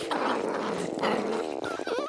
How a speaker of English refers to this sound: if these crabs are already able to make this noise with their big, scary claws, why do they also need to growl with their stomachs?